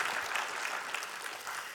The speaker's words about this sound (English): You can clap, that's a good thing.